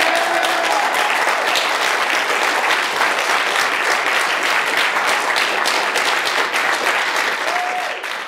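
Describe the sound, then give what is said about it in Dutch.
Sustained, loud applause from a large audience at the 2016 press conference announcing the detection of gravitational waves, dense clapping filling the whole stretch evenly before tapering slightly at the end, with no talking over it. “Applaus.”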